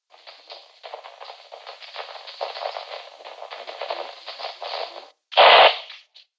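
Crackling static hiss on a police radio channel, a steady band-limited rasp with fluttering crackles for about five seconds, then a sharp loud burst of radio noise before it cuts off.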